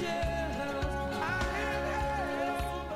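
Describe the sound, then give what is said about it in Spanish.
Upbeat orchestral soundtrack music from an animated film plays steadily and fairly loud, with a punchy bass pulse and bright melodic lines on top, with no voices over it. “La música que estamos escuchando, ¿de qué película es?”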